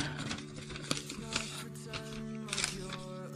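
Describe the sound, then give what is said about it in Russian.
Crisp rustling and crinkling of paper in short irregular bursts as a Russian-language newspaper insert found in a letter is unfolded, over a steady low hum in the background. “Какая-то там у нас газетная вкладка есть на русском языке.”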